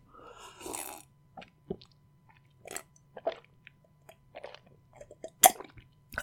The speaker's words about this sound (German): Das Glas Made in Italy. Sehr schön. Und da werde ich jetzt einen Schluck Wasser draus trinken, Leute. Hört euch das mal an.